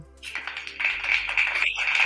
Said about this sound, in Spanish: Aplausos.